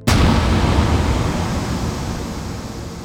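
A huge explosion bursts in abruptly at the entrance to a room, then a heavy, roaring rumble of deep noise lingers and slowly fades over a few seconds, with no voices.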